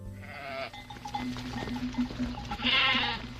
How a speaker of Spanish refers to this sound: Volvió a mirar don Quijote al rebaño de ovejas y carneros, y vio que así era la verdad, y alegrándose sobremanera, pensó sin duda alguna que eran dos ejércitos que venían a embestirse y encontrarse en mitad de aquella espaciosa llanura.